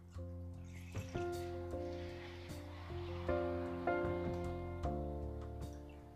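Water pours steadily from a bottle into a boiler for several seconds, a continuous splashing rush with a hollow, ringing tone that shifts as the vessel fills. Fairly loud, with no talking.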